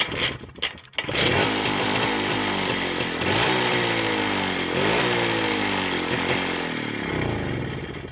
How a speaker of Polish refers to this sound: Motorynka.